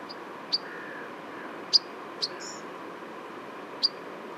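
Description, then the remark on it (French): Four short, sharp calls from migrating pied flycatchers, birds that nested in Nordic countries such as Sweden, Norway and Finland, spaced irregularly over a few seconds, fairly distinct above a steady background hiss. “Donc voilà, tout ça, ce sont des cris de gommouches noires en migration.”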